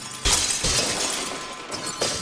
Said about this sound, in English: So then one day they just came to my house. We were just watching TV, and then all of a sudden we just hear a whole bunch of like windows break and everything.